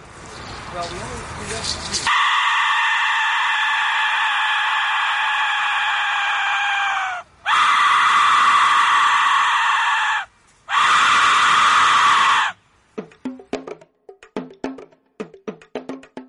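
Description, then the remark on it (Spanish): An Aztec death whistle, an Aztec weapon, shrieks in three long, piercing blasts, a harsh scream-like wail with rough harmonics and short gaps between, followed by a few brief, sputtering bursts. “descrito como Mil Cuerpos Gritando, uno de los más aterradores sonidos recientemente descubiertos proviene de un arma azteca llamada el silbido de la muerte.”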